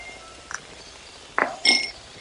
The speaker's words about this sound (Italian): Sentite il rumore del ghiaccio nel bicchiere